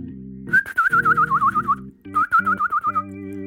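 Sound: bird whistling call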